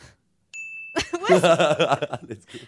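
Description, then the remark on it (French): A single bright ding sound effect, played during a points quiz game, rings out clearly and sustains for about half a second before fading, then someone bursts into laughter and other voices follow. “je vais trouver le bruitage de Ding.”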